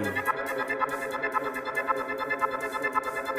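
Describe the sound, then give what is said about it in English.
A heavy dubstep track with a pulsing, regular beat, its sound thick with distortion and echoing effects, playing loud and continuous with no voices. “This tune is … by …. Big sound.”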